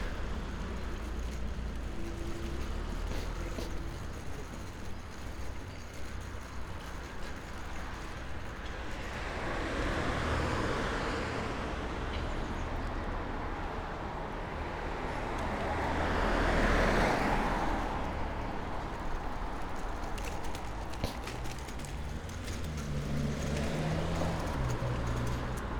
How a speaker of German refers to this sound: Genau heute kommen keine LKWs, nur ein paar Autos. Nur ganz wenige Autos sogar. Unterm Strich relativ wenig. Nicht die Lautstärke, die ich mir eigentlich erhofft hatte, dass es nochmal skurril anders wird.